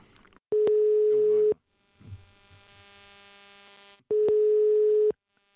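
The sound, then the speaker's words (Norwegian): A telephone ringback tone as a call from Aftenposten is placed to Herbjørn Hansson: two long, steady beeps about a second each, separated by a pause of a few seconds with a faint hum on the line. “Vi, eh, vi kan prøve å ringe han.”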